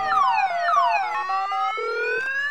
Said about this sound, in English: Cut off your stupid car alarm!